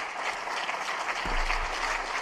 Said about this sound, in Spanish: y le aplauden. Increíble.